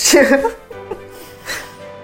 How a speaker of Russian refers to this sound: Заплачу сейчас, да? Я сейчас сама плачу.